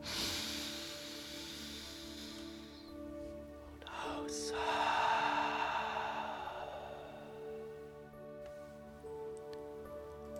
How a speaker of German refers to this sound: Und ich empfehle dir, tief durch den Mund zu atmen, weil dadurch noch mehr Luft in deine Lungen strömen kann mehr Sauerstoff in deinen Körper aufgenommen werden kann.